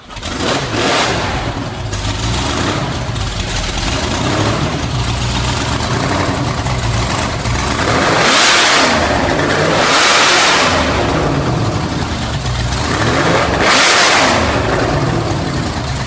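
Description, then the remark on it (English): A loud race car engine with an open header idles roughly indoors, then is blipped hard several times, each rev flaring into a raw, crackling roar before dropping back; reverberant. “when he throws those revs, and imagine that's just an open header I coming out.”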